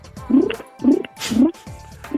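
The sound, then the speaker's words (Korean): A woman's voice imitates a pigeon for a quiz, making four low, throaty coos in a steady repeating rhythm, each a short gurgling rise and fall, fairly loud with no other talking. “자, 여러분 정답이 뭔지 모르시고 이거 비둘기예요, 비둘기.”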